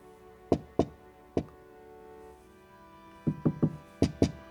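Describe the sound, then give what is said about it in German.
Knocking on a hollow-sounding surface in irregular groups: two raps, a single one, then a quick triple and a final pair, each sharp with a resonant, boomy ring. No voices. “Das klingt wie ein Hohlraum.”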